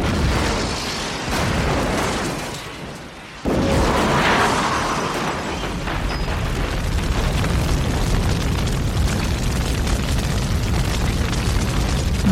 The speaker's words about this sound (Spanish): ¡Boom! Todo saltó por los aires. Una terrible explosión consumió buena parte del hotel, las preciosas salas, los lujosos salones y las enormes cocinas quedaron destrozadas bajo el fuego y el humo.